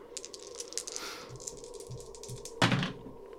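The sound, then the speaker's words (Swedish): Dice are rolled for a willpower check with one die fewer, rattling and clattering across a hard surface in a quick burst of small clicks and ending with a sharper, louder knock near the end. No one talks. “Allt för att göra det, minus en tärning.”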